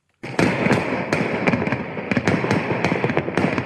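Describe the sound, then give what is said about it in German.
A dense barrage of New Year's Eve firecrackers exploding, sharp cracks and bangs piling up rapidly over a continuous rumbling roar, loud, with no voices. “Es ist der Sound, der alle Jahre wieder die Gemüter erhitzt.”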